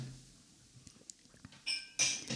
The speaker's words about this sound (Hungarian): majd itt az asszony megzavarja a csörömpöléssel.